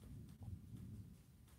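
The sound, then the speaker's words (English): A deep, low rumble of distant thunder from a lightning storm rolls steadily for a moment, muffled and heavy, with no voices over it. “If you heard that, a big boom of lightning, that means lightning strikes, which means bad fire.”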